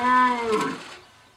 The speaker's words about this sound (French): Un cerf. Oui. C'est bien. Est-ce que tu sais dire le mot Le brame du cerf